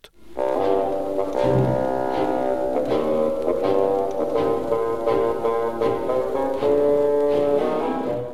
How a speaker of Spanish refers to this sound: el abuelo un fagot.